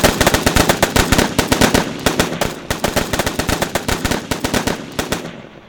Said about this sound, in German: Diese erwidert das Feuer und innerhalb von 15 Minuten werden bis zu 150 Schüsse abgefeuert. Als jemand ruft, dass sich Frauen und Kinder im Gebäude befänden, wird die Schießerei kurz eingestellt.